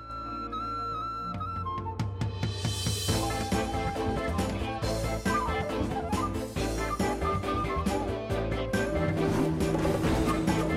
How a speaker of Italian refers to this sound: Ascoltate anche la musica perché merita. Dai, su. Alzo un po' la musica, siamo in silenzio.